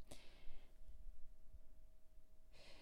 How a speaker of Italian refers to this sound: Ascoltiamo il suono della campana finché le orecchie lo percepiscono.